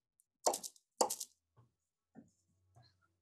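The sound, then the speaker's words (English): Two heavy knocks from a giant brass door knocker strike a dark wooden door with brass fixtures in quick succession, loud, followed by a few faint, softer thuds as the sound dies away. “wood, uh, dark in color, uh, brass uh, fixtures all around it, uh, a giant brass knocker, and large brass kind of handles uh, Beauregard takes the knocker and knocks twice.”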